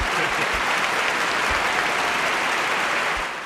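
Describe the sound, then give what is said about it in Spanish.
Steady, dense applause crackles continuously for a few seconds, a hissy, sizzling texture much like bacon frying, holding a fairly even loudness before easing slightly at the end. “No, están aplaudiendo. Ah, esos son los aplausos.”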